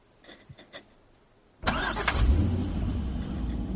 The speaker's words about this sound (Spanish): En un camino, Walt avanza rápidamente con el coche.